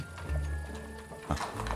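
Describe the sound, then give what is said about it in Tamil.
Horse hooves clip-clop at a steady, unhurried pace, a few distinct clops over a low rolling rumble as a horse-drawn carriage sets off carrying three passengers toward Baker Street. No one speaks. “இந்த வண்டியில் இருங்க நாங்கள் மூணு பேரும் பேக்கர் ஸ்ட்ரீட் போக குதிரை வண்டியில் ஏறும் வண்டி கிளம்பிச்சு”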